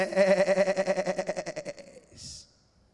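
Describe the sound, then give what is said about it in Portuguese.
A single long goat bleat with a rapid, quavering tremble, fairly loud, fading out after about two seconds and followed by a short breathy hiss. “E aí, quando ele olhava para as cabras, as cabras falavam para ele: Moisés.”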